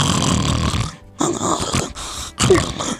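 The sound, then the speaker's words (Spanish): A person loudly imitates a man snoring with three harsh, rasping snorts separated by brief pauses, prominent with no other voices. “Y luego roncan y parece que se van a morir. Así.”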